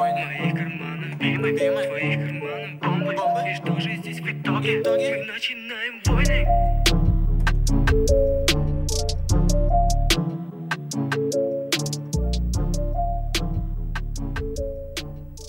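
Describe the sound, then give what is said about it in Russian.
The ending of a hip-hop track: the beat plays loudly, with crisp ticking hi-hats and layered melody; a heavy, booming bass line drops in about a third of the way through and drives steadily to the end. “А так в целом трек, ну, классный. И то, что читка, она прям, ну, входит в трек, говорю, не выбивается, это все классно.”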